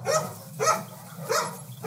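A dog barks four times in a steady rhythm, about every half second, with a low droning hum running underneath.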